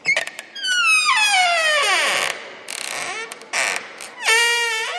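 A long, loud creak of the front door of a palace swinging open, its squealing pitch sliding downward over a couple of seconds, followed by shorter creaks and one last rising squeal, with no talking.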